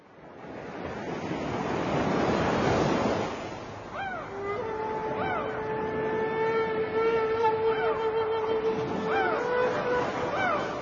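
Sea waves wash over the shore in a steady, loud roar, swelling to a peak early on. Later, sustained high whistling tones and rising-falling calls sound above the surf.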